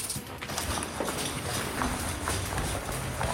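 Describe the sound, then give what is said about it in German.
Footsteps on wooden boards laid among pebbles, a steady series of hollow knocking steps at walking pace, moderately loud over a constant background hiss. “Bitte nicht auf die Kieselsteine treten, sondern nur auf die Bretter, sonst wird man uns sofort hören.”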